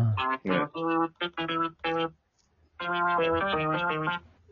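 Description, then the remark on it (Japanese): A made-up pachinko jackpot confirmation jingle created in the GarageBand app: five quick, punchy synth notes, a short pause, then a sustained run of stepping tones, loud with a buzzy, distorted, effected timbre. “パチンコで脳汁が出る確定音を考えよう”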